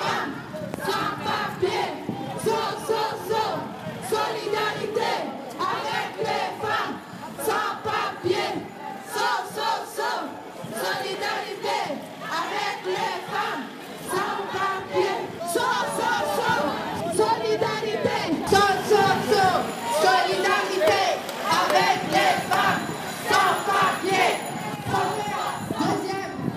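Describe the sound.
A large crowd chants French solidarity slogans in unison at a protest in Brussels in March 2016, voices rising and falling in a steady rhythmic cadence, loud, sustained throughout with a surge in intensity toward the end.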